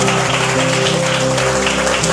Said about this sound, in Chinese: Yeah，哎，我我我们一起给我们那个我们敬拜团一个热烈的掌声，好吗？哇！